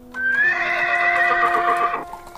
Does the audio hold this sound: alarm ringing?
no